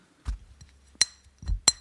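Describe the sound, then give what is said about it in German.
Two bright clinks of super-thin glass drinking vessels tapped together about a second apart, each with a short high ringing tail. Soft low handling bumps come just before each clink. “Ich hatte schon Angst, dass ich sie kaputt breche, weil das ja super dünnes Glas ist.”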